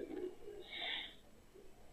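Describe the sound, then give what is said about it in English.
A man briefly imitates with his voice a hissing sound he heard, likened to a Fourth of July rocket: a short breathy hiss lasting under a second, rising and fading, fairly quiet. “A hissing sound like this.”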